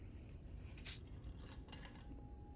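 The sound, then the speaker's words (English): A spoon clinks against a bowl a few times, with one sharper ping and softer scrapes, as someone eats Fruity Pebbles cereal at nine o'clock at night. No talking. “What is that, biscotti? Cereal. Fruity Pebbles.”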